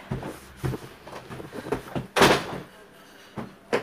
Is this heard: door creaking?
yes